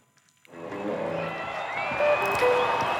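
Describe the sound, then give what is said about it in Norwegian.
A large festival crowd murmurs and chatters steadily just before a big outdoor concert starts, with scattered shouts, whistles and a few claps rising over the dense, constant hubbub after a quiet start. “Sånn høres det ut rett før en stor utekonsert starter.”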